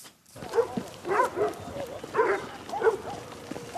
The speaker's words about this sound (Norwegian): Hundene varsler at noe er i gjære lenge før man kan se noe som helst.